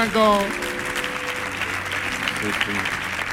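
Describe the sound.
A burst of sustained audience applause, a dense crackle of many hands clapping at steady loudness, with faint tonal voices or music lines briefly showing through at the start and near the end.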